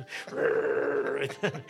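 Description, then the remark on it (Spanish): A dog growls in a steady, drawn-out rumble, then breaks into a couple of short, clipped barks at the end, fairly loud. “Me, quieren ladrar, ¿viste?”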